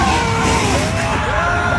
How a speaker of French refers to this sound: Le tout est filmé en direct sur les réseaux sociaux. Sur cette vidéo, une voiture se renverse dans un rond-point